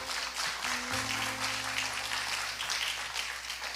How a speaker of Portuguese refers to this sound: Aquele pastor foi curado instantaneamente para a honra e glória de Jesus. Aplauda o seu bem forte.